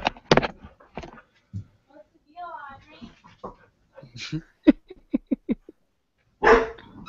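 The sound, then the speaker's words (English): A female puppy barks repeatedly in short, sharp bursts, with a few quick yips clustered together and a louder bark near the end, alongside brief human voices in the background. “Good puppy. Oh, that's right. She hates me.”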